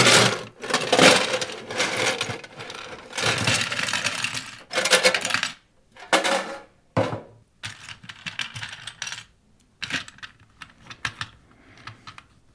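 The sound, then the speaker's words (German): A white rectangular metal box is opened and shaken, its contents rattling and clinking in dense, loud bursts, then thinning into scattered sharp clicks and clatters toward the end. No one speaks. “Also es ist eine weiße rechteckige Box ja. aus Metall.”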